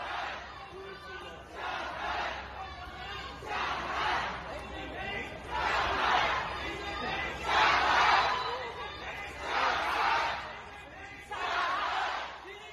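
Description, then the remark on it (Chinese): A large protest crowd on Wulumuqi Middle Road in Shanghai, China, roars slogans in unison, loud rhythmic chanted bursts repeating about every two seconds, each shout rising and falling with brief lulls of murmuring between them. “很多朋友都已经在社交媒体上听到了上海乌鲁木齐中路民众们石破天惊的怒吼。那在这边再来放一次，大家再来听一次。”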